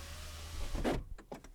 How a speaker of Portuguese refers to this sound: São as janelas a fechar.